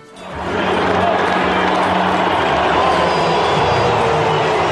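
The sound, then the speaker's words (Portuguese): A large crowd boos and applauds at once, the dense roar swelling up within the first half second and then holding loud and steady, with no break, for several seconds. “As vaias e os aplausos são direitos dos concidadãos dentro da normalidade democrática”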